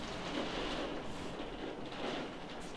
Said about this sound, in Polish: Jakiś grad chyba jest i wieje strasznie.